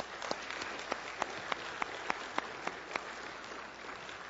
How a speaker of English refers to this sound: So, one more time, I want to give a, a round of applause to all those people.